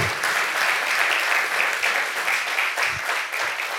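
An audience applauds the Lord after a prayer at a Spanish-language church service, a dense, loud wash of many hands clapping at once that holds its level throughout, with no voices standing out above it.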